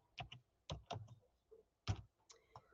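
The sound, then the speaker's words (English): Several quick computer keyboard keystrokes clack in short bursts as the word 'unstable' is typed in, fairly crisp, with brief pauses between clusters of taps and no talking. “I'm gonna put that word in here.”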